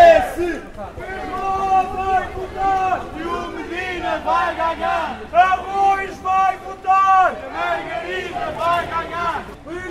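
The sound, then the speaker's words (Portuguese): A crowd of PS campaign supporters with Fernando Medina's caravan shouts chants of "PS!" in the street in Arroios, Lisbon, many voices rising together in loud, rhythmic bursts that swell and fade, with overlapping yells and babble between them. “Os gritos são fortes, mas rapidamente se dissipam.”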